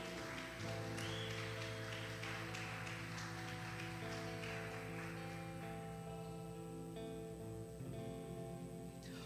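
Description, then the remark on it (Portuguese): A church audience gives a round of applause to God, clapping steadily for several seconds, a dense crackle of many hands, with sustained keyboard chords ringing underneath and the applause gradually thinning toward the end. “Dá uma salva de palmas a Ele.”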